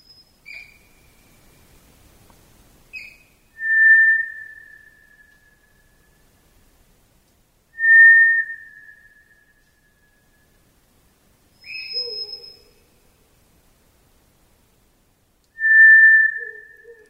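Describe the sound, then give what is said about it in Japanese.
A White's thrush (Tora-tsugumi) sings its breeding-season song, long, thin, eerie whistles, each drawn out and slightly falling, repeated about every four seconds in a quiet summer night in the forested crater of Mount Haruna. A few softer, shorter calls appear between them. “春名山の噴火でできた火口は1,500年の時を経て緑豊かな森になりましたフクロウと鹿とそしてトラツグミの摩訶不思議な声が夏の御間谷に深く長く響いています”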